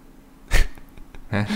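loud sneeze

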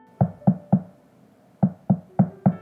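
knocking on a door

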